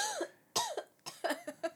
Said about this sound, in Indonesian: Duh, kenapa sih batuk mulu?